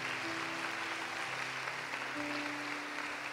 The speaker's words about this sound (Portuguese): Vamos aplaudir o Senhor.